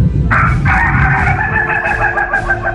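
A rooster crows once in a long, loud, drawn-out call that starts abruptly, holds a strained, harmonic tone for over two seconds, and trails off. No one speaks.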